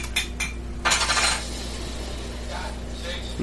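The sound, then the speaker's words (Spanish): Sharp clicking taps on a tabletop, a few quick hits followed by a brief clattering burst and fainter taps later, over a steady low hum. “Deja de estar picando clic en mi mesa.”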